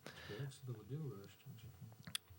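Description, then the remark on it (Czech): A man talks steadily, then a single sharp plastic click snaps out near the end as the blue part of a test kit is separated. “Tak a teď ho vlastně, teď ty vlastně oddělíš tu modrou část a na jedné straně budeš mít, uh, budeš mít vlastně uh, takový stírací plošky.”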